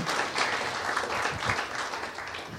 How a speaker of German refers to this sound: ich finde, wir sollten ihm wirklich einen Applaus geben.